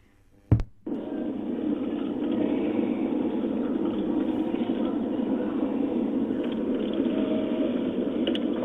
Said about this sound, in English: here he is, he's getting pulled over uh, out in Mississippi. Uh, they're pulling his car over now.